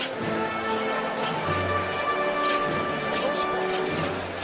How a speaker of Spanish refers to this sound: Así suenan los, bala- los varales de este paso de palio que le intenta quitar la amargura a la Madre de Dios.